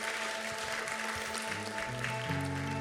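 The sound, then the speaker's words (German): Steady, dense applause from an audience at a church service, welcoming people after a prayer, fills the whole clip, with sustained keyboard or organ notes shifting pitch underneath as the clapping continues. “Lasst uns hier jetzt mal einen Applaus geben.”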